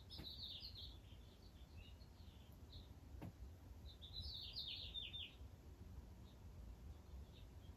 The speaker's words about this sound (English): It expresses differently through the star and these birds.